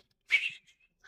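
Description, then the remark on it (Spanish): A single short human whistle by older men walking past, a bright high tone that swells and fades in under half a second, heard alone with no talking. “Yo los veía como ellos me pasaban chiflando.”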